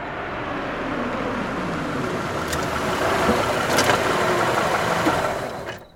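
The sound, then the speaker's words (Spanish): A Toyota car engine runs steadily, a low continuous rumble that holds for several seconds, swells slightly near the end, then cuts off. No voices are heard. “roba nuevamente un Toyota, su automóvil preferido. Se traslada hasta Pico Rivera,”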